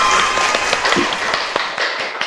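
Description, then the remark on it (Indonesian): An audience applauds steadily, with many overlapping claps forming a dense, even wash of sound and a few sharper individual claps standing out, sustained at a fairly loud level throughout. “tepuk tangan dulu dong”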